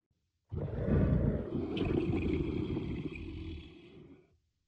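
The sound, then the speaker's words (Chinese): A single long, rumbling tiger roar, deep and loud, sustained for about four seconds before fading out, with no voices over it. “小公主跑去开门，结果跳进来一只老虎。”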